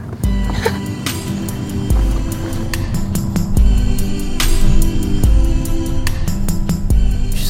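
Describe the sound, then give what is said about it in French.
Steady, loud urban traffic rumble on a busy street in central Madrid, with many taxis, buses and bicycles, engines idling and passing vehicles, occasional sharp clatters and thumps, forming a dense street soundscape without clear speech. “Tout de suite, il y a euh, plein de taxis, plein de bus, plein de vélos, plein. D'un coup, tu te prends tout le bruit comme ça.”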